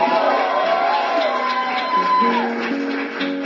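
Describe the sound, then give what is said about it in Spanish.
An audience cheers and applauds steadily for a person who is getting married, with loud whoops and sustained shouted voices rising above a dense wash of clapping throughout. “mucho un aplauso”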